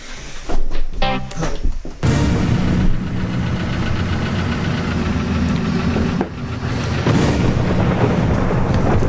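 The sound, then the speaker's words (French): A loud show jingle opens with a few short punchy hits, then swells into a dense, rumbling wall of sound with a low droning pulse, briefly dipping before surging again. “puis je vais lancer le jingle.”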